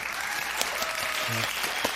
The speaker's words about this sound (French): donnez-moi une belle main d'applaudissements.